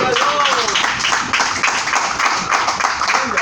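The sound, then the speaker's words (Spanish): A church audience claps and cheers steadily for a few seconds, giving applause to Jesus, a dense, loud wash of applause mixed with shouting voices and a couple of rising whoops. “Denle el aplauso a Jesús, por favor.”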